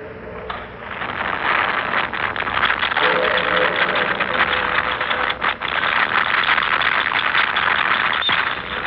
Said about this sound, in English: I'm going to play you a tape of what they usually hear when the telescope is on.